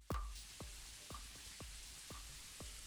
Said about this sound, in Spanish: Así que ya estamos llegando a un pequeño puentecito. Nos vamos a tomar, si ustedes pueden escuchar el agua, me voy a detener un poco ahorita. Logran apreciar el agua, el sonido.